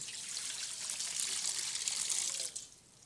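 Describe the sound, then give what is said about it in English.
Water pours steadily from a pitcher into a basin with a soft, splashy hiss for a couple of seconds, then trails off into a faint trickle. No voices accompany it. “and he gets down on the ground, and he takes a pitcher of water, and he pours it into a basin.”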